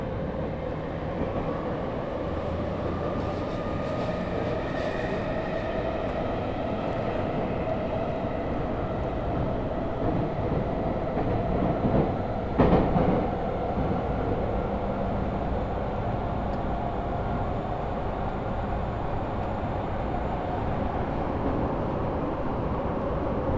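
A Tokyo Metro subway train, travelling between Iidabashi and Nishi-Funabashi with Monzen-nakacho as the next stop, runs steadily with a loud, continuous low rumble and hum of wheels on rails, a faint whine drifting above, and a brief metallic clank partway through. No one speaks.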